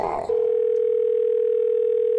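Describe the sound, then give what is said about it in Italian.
A steady, continuous telephone tone from a third phone call to an electrician hums at a single pitch, loud, sounding without a break for about two seconds after a brief burst of voice at the start. “Terza telefonata all'elettricista.”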